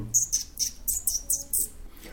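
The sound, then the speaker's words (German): A person softly imitates a bird's chirping with their mouth to get a rat's attention: a quick series of about six thin, high-pitched tweets in an even rhythm, very quiet with no talking. “Und äh, dann habe ich mir gedacht, jetzt äh, versuche ich mir einmal ein bisschen bemerkbar machen, also mit einem ganz leisen äh, äh, Zwitschergeräusch, also so ein”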